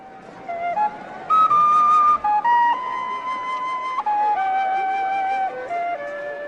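In a scene of the 1983 James Bond film Octopussy set in India, a snake charmer plays a flute: a slow, winding melody of long held notes that step up and down in pitch, reedy, steady and fairly loud, with no talking.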